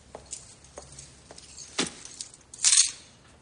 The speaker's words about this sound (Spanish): Suelta el bolso y las llaves en la entrada.